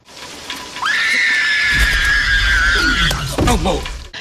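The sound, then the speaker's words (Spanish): A girl playing Mr. Hammond's granddaughter in a film, chosen for her ability to scream, lets out a long, piercing scream held steady for a couple of seconds over a deep rumbling background, then trails into a few shorter, wavering cries. “bueno, la eligieron por su capacidad de gritar.”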